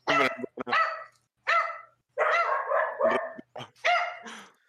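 Dogs bark loudly in a quick, irregular burst of about eight sharp barks, some overlapping, with short gaps between them and no voices.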